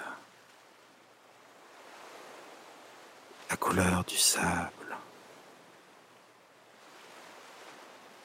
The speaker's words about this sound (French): de son régulier reposant des vagues très douce, calme, tranquille. vraiment paisible.